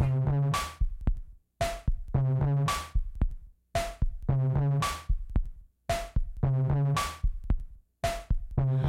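A rock song intro built on heavy, thumping drum hits in a steady, heartbeat-like pulse, each punchy beat ringing with a brief tonal swell, loud and up close with no voices.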